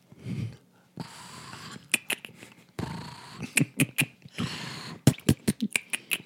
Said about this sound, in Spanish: A ver, mira, ¿quieren escuchar a … roncar? A ver, a ver, pongan atención.